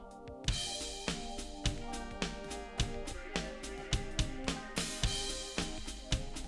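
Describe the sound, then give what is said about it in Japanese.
A sampled drum pattern finger-drummed live on MPC pads, with punchy kicks and snare hits landing in a steady groove over a sustained musical backing, loud with no voices. “そんなすごいフィンガードラムができるわけじゃないんだからさ別にこうやってさこれは MPC の音ですけどこうねやってけばいいから”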